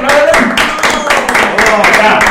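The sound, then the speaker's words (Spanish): Loud, steady applause from a crowd welcoming a music group from Juchipila, Zacatecas, performing live, dense clapping mixed with voices and cheering, continuing without a break for a couple of seconds. “Listo, desde Juchipila, Zacatecas, fuerte el aplauso, chicos,”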